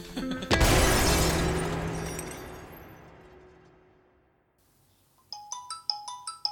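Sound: telephone ringing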